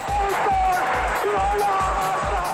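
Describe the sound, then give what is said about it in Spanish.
A stadium crowd roars and cheers in a dense, continuous wall of sound, with a steady thumping drumbeat pulsing underneath and a faint sustained horn-like tone. “Cuando escuchamos la grada rugir, es la pasión que se hace sentir.”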